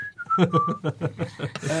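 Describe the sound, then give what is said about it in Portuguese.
A person whistles a short, clear note that slides downward, then rapid choppy vocal bursts like chuckling take over for the last second. “Eles pediram à, à fonte da Caixa para dizer diga, diga quantas vezes é que isto já foi e, e eles assobiaram.”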